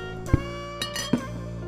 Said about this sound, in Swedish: Utan eh, det är tre stycken flaskor eh, och jag ska bara hämta dem ur kylen här ett ögonblick.